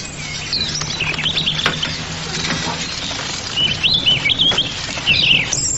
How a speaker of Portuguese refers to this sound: Vai, passarinho. Você, como as crianças, também tem direito à liberdade.